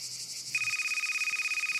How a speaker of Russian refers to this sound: Протягивает руку к упорно орущему телефону.